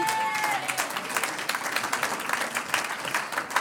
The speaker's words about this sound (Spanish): Un aplauso al que vive.